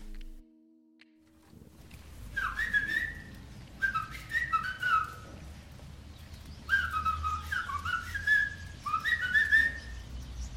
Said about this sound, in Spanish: Escuchamos entonces eh, este lenguaje de silbidos